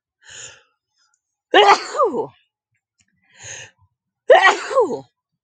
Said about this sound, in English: If you guys notice, I've been sneezing in pairs lately. I'm no, no longer threes. I don't know what that means. Maybe it doesn't mean anything.